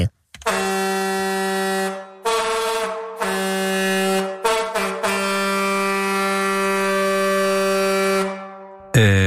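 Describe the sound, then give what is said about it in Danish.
A loud, brassy comic horn blares in several sustained blasts, broken by short gaps, with a steady buzzy tone rich in overtones, ending with a brief final toot. “Hvis du, øh, ja, det er, hvad hedder det, øh, Tone Ørstranders analhorn.”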